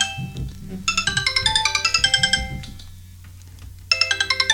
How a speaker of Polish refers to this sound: Mamy drugi telefon z systemem Android na który zadzwonimy, w związku z tym, że dzwoni nam kolejny telefon. O, właśnie.